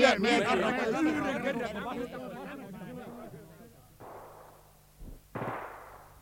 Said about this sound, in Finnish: Linjasta kuului hiljaista laukausten vaihtoa.